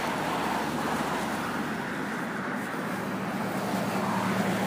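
A 1950s Studebaker with a mint green paint job rumbles past, its low engine drone blending into steady, fairly loud road noise that holds throughout, with no voices.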